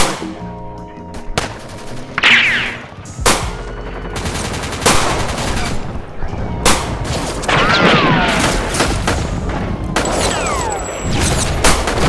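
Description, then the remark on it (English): A rapid barrage of loud gunshot sound effects from big and small guns, mixing sharp single cracks with bursts of automatic fire and heavier booming blasts, one after another with no pauses for speech. “Big guns, small guns. It should be uh pretty silly. Looks like I could just load them into my keyboard like gunshot.”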